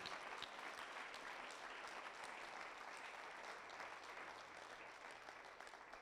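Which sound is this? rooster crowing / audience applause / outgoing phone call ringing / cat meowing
audience applause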